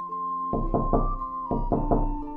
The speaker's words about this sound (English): So she went to the house and knocked at the door.